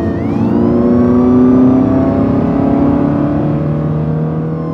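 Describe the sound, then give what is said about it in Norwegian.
A car engine roars at high revs, its pitch climbing and holding steady as the vehicle speeds along while chased by police, loud throughout with no voices. “De kjører så galninger.”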